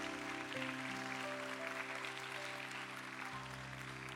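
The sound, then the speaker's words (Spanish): A crowd applauds the Lord steadily, a dense, continuous wash of clapping over sustained keyboard chords that shift partway through, with no one speaking. “Celebra conmigo y dale un fuerte aplauso al Señor en esta tarde.”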